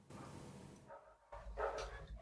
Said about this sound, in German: Ruhe da draußen! Ich wollte gerade sagen, wer bellt denn bei dir da gerade?